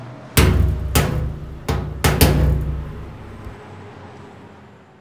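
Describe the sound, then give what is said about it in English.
A heavy truck driving fast in the passing lane rumbles as several loud metallic bangs hit in quick, uneven succession as it smashes into a road sign, then the engine noise fades away. “Um, pretty sure that sign we hit mentioned something about trucks not being allowed in this lane.”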